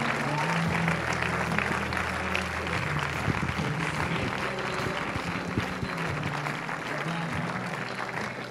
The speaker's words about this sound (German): Ja, lass uns jedes Mal einen Applaus geben. Der ist es wert.